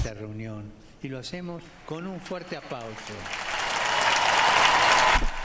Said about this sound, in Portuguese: Agradecemos-lhes por isso, com uma grande salva de palmas